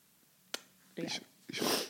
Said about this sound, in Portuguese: Tipo, não, acabou de espirrar e sabes. Estás a espirrar porquê? Alergia?